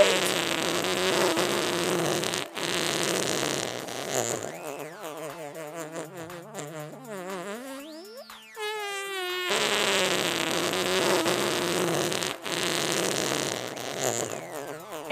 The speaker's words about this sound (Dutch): Oké, sta jij klaar voor de generale? Dan laat ik nu een hele lange scheet.